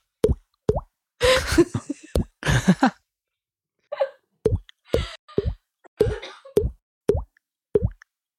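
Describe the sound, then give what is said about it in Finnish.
A voice imitates plops into a toilet bowl with a string of short, sharp mouth pops in an uneven rhythm, broken up by a couple of breathy bursts and a brief hum. “Saanko se tulee sinne vessanpönttöön?”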